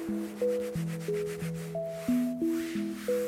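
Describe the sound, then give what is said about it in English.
A mop swishes back and forth over chestnut-coloured tiles in steady, rhythmic strokes about every half second, with soft sustained tones running underneath. “he was lost in his work with nothing but the hypnotic swishing sounds of his mop going back and forth over the chestnut coloured tiles.”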